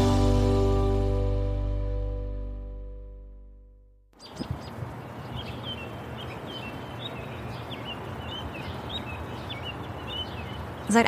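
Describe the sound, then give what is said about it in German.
A sustained musical chord fades out, then outdoor morning ambience in New York takes over, with small birds chirping and tweeting repeatedly over a steady background hum. “acht Jahren wohnen wir jetzt schon in New York und noch nie sind wir hier zu Vogelgezwitscher aufgewacht.”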